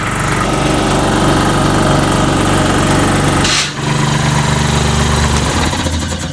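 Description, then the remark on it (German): A compressed-air tool runs loudly and steadily with a buzzing mechanical drone, cuts out with a short hissing break just past the midpoint, then resumes. No one speaks. “Äh, ich werde jetzt versuchen, mit etwas Druckluft zu arbeiten.”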